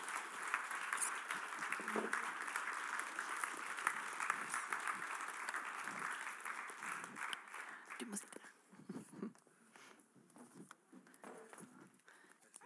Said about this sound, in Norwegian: Eh, så vi klapper dem opp, dere tre som vi har eh, avtalt med.